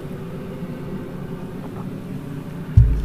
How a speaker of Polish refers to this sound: E, przepraszam bardzo, leci mi tutaj helikopter teraz.